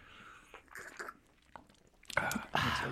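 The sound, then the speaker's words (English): Chewing with a few soft, moist bites early on, then louder crunchy, crackling bursts toward the end as someone munches a Taiwanese snack food. “as I take a bite of How soup.”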